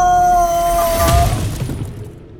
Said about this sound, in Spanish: le arrebató su madre el santo que tanta emoción le había causado y sin pensarlo lo arrojó contra el lienzo de piedra.